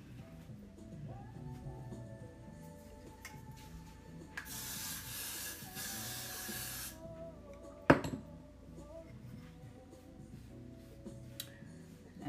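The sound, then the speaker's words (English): A single steady burst of hair spray hisses for about two and a half seconds as a little is sprayed on freshly brushed hair to keep it in place, surrounded by soft handling and rustling sounds, with a sharp click shortly after. “So I brushed it, but I'm gonna put a little bit of spray just so it can stay and I ain't gotta keep, I ain't gotta keep worrying about it.”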